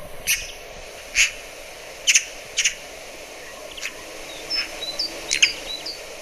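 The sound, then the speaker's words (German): A magpie, a member of the crow family, gives four harsh, rasping calls at uneven intervals, while thinner, high-pitched chirps from smaller birds, including a great tit, flicker in the background. No one speaks. “Ähm, weil das ja auch äh, äh, Rabenvögel zur Rabenvogelfamilie gehört und die sind auch sehr, äh, können auch ähm, äh, sehr variieren.”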